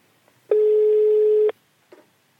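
A single steady telephone ringback tone lasting about a second, loud, on an outgoing call to someone's brother at work, followed by a brief faint click or rustle; no talking.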